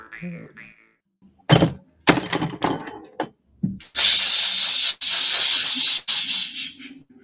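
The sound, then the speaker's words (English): A glass beer bottle falls over on its own with a hard thunk and a few rattling knocks, followed by a long, loud hissing spray. Faint voices can be heard at the start. “No, that was a beer bottle that fell.”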